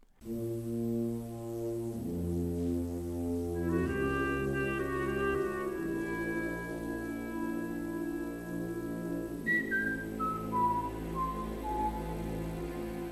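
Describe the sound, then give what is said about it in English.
A group of priests whistles a slow melody in a scene from the film Gidget Goes to Rome, over sustained, swelling orchestral chords of the score, the whistled line stepping downward near the end. It is loud and continuous, with no talking. “Those priests who whistled the Gigetta theme inspired Williams to do the same thing”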